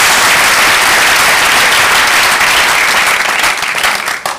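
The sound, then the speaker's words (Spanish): An audience applauding the Lord loudly and steadily, a dense wash of many hands clapping at once that holds its strength for several seconds before beginning to thin out at the end. “un buen aplauso al Señor con ganas, hermano.”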